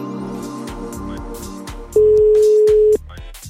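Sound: telephone call dialing tone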